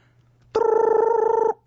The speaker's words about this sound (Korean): 응? 전화 왔네.